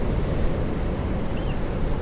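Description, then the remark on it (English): A continuous, loud roar of rough Atlantic surf on the island of Tiree in the Inner Hebrides, with heavy low rumble and wind buffeting, no distinct individual wave breaks standing out over the two seconds, and no voices. “And um, yeah, the sea's pretty rough, isn't it? Crashing waves coming straight off the Atlantic.”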